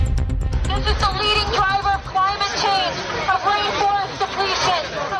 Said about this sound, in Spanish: Escuchamos a miles de jóvenes activistas eh, que protestan hoy en Glasgow, Escocia, donde se desarrolla la COP26, la cumbre mundial sobre el cambio climático.